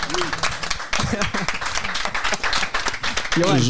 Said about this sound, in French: Euh, moi, je voulais mentionner quelqu'un aussi qui est, né avec nous, entre guillemets, c'est euh, Mourinho José. Ah, oui, ah, faut respecter. Non, non, on applaudit, on applaudit.